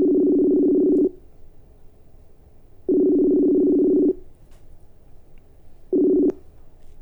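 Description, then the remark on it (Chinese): A phone call being placed to Taiwan: a steady, mid-pitched ringback tone sounds in loud buzzing bursts about a second long, separated by silent pauses, with the third ring cut short. Nobody speaks. “OK OK，我们来打电话。”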